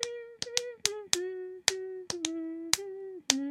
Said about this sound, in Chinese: 那这边节拍呢？如果还是唱不好的话，就可以放慢速度，并且用拍手的方式先来练习，像是这样子。